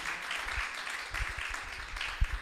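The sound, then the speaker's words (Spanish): An audience applauds the women, a steady dense patter of many hands clapping with a few heavier thumps, fairly soft and continuous throughout, with no voices over it. “Un aplauso a las mujeres porque son sensibles al amor.”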